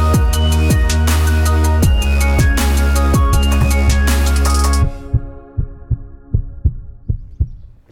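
A loud, steady heartbeat thumps beneath a bright musical jingle; after the music cuts out, the double-beat pulses continue on their own, deep, at an even rhythm.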